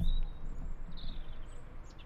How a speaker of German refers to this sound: hört man, denkst du, man hört die ganze Zeit diesen einen Vogel zwitschern im Hintergrund?